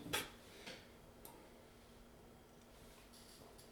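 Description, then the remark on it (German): A few sharp, hard little clicks of a drinking glass knocking against a tooth, fairly quiet, spaced irregularly with near silence between them. “Jetzt bin ich mit dem Zahn an den Glas äh, mit dem Glas an den Zahn gestoßen.”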